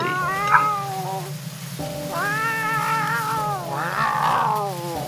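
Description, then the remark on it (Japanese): A huge cat yowls in three long, wailing, loud meows as it runs off over a hill, each call rising and falling in pitch over a steady low rumble. No one speaks. “声も猫の鳴き声に変わっていっ”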